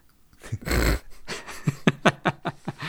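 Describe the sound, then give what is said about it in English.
A person fakes a snore: one loud, rasping snort followed by a quick run of short, rhythmic nasal puffs and snuffles. “I just snore very alertly.”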